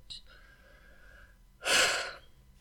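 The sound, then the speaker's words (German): A single deep breath drawn in, a broad airy rush lasting under a second, preceded by a faint vocal murmur and quiet room tone. “tiefer Atemzug”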